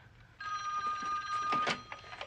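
household object, telephone bell ringing

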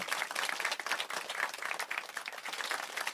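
crowd, audience applause and clapping

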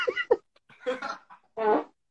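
human body sound, fart

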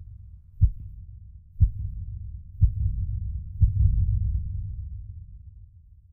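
human body sound, beating heart

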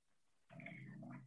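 animal, dog growling and whimpering

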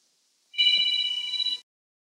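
household object, landline telephone ringing

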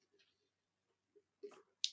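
human body sound, sipping water

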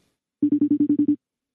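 signal or alarm, phone call ringing

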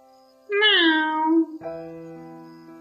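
animal, cat meowing

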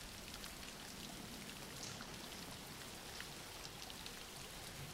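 nature, background rain

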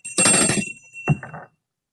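signal or alarm, bell ringing

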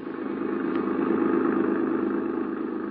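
vehicle, car engine running

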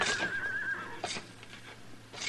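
animal, horse whinnying

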